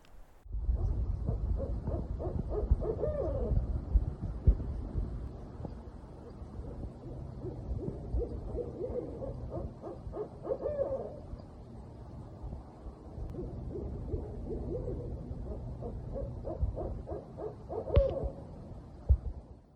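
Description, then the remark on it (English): Two barred owls call back and forth in a loud, raucous duet of hoots and cackling caterwauls in a backyard in Charlotte, North Carolina, repeating in bursts over a steady low outdoor rumble. “Tim was kind enough to send me these barred owls duetting in his backyard in Charlotte, North Carolina”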